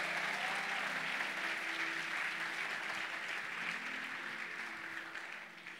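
An audience at an evening church service applauds steadily as believers, dense clapping at a sustained, fairly loud level before easing slightly toward the end.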